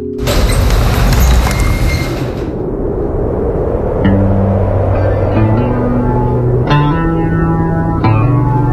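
A rock song opens with a loud, rumbling, echoing wash of noise, which gives way to slow, sustained, reverberant chords stepping through a sequence of notes. No singing yet.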